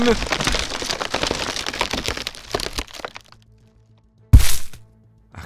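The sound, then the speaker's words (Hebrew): A wooden bridge crackles and splinters for about three seconds as someone walks across it, then goes quiet before a single loud crash as the beam beneath them drops, with a short fading rumble afterward. “הקורה שמתחתיי נפלה.”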